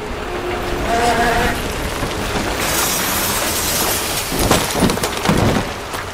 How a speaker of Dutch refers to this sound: Het wordt volgestort en daar gaan de shovels Die boel egaliseren. Je hoort het heen en weer brullen van de shovels.